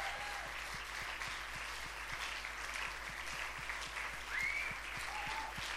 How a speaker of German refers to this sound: Lass dem Herrn Applaus geben.